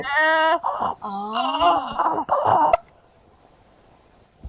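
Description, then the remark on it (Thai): A child's inspiratory stridor: a harsh, high-pitched crowing noise on breathing in, mixed with strained gasps and cough-like bursts, loud for about three seconds before falling silent. “ไอเนี้ยคือเสียงเสียงที่แบบว่าตอนตอนหายใจเข้า”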